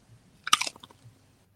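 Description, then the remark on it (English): A single sharp crunch as teeth bite into a crisp cracker for hummus, dipped in the middle, followed by a few softer crackling chews that fade quickly into quiet. “Oh, first crunch, and this is going to be brutal.”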